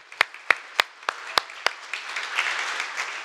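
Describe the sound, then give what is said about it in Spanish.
Six crisp, evenly spaced claps ring out, then a wider round of applause swells up as more hands join in, building into a steady patter. “Un aplauso para él, ¿no?”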